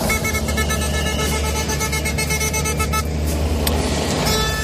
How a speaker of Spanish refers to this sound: Se repiten las escenas de los tractores impidiendo el tráfico, mientras los conductores y los transportistas esperan atrapados en el atasco.